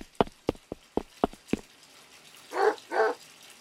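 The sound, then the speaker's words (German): A dog in a bathtub with a pair of diving goggles gives two short barks after a quick series of sharp knocking clicks, with no one talking. “Was macht denn der Hund in der Badewanne mit meiner Taucherbrille?”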